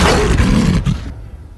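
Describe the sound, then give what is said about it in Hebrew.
A single loud roar from a lion at the Schnitzel Brothers circus, a deep rough bellow lasting about a second before cutting off into a brief fading tail, with no talking. “בוא הנה, אריה. אריה, בוא בוא הנה. עכשיו, פתח את הפה.”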